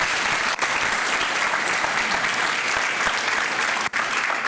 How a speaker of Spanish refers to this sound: Ahora sí, denle ese fuerte aplauso. Yes, now you can give that applause.